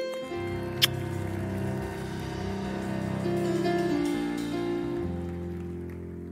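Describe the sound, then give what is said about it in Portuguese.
An audience applauds for Jesus in a steady, dense wash of clapping for about six seconds, with sustained musical chords playing underneath and one sharp click early on. “Vamos aplaudir Jesus por esse povo chique.”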